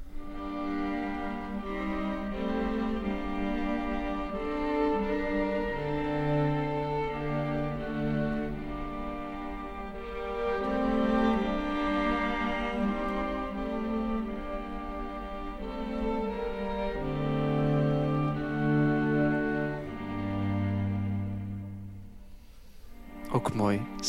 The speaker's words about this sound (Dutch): Heeft Schubert dat lied, die melodie, opnieuw gebruikt voor dat veertiende strijkkwartet. Ja, voor dat andante, voor dat tweede deel. En hij doet er iets mee en dan klinkt dat zo ineens.